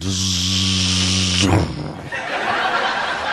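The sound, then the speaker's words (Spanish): A voice imitates a rotary hammer drill boring a hole: a steady, buzzing drone with a harsh, hissy edge lasts about a second and a half, then cuts off into breathy, chuckling noise. “con, el, con el taladro roto martillo empieza a hacerte el primer hoyo.”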